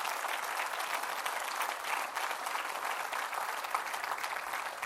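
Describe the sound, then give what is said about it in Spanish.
An audience applauds Christ steadily, dense clapping from many hands forming a continuous, even wash of sound that holds at a fairly strong level for the full five seconds, with no voices standing out. “Denle un fuerte aplauso a Cristo, hermano.”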